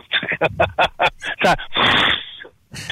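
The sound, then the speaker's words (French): A voice imitates a crusty pizza being cut: a quick run of crunchy, clicking bursts, then a long raspy hiss, and one last short crunch. “Il Pourrais-tu refaire le bruit que quand tu coupes ta pizza euh,”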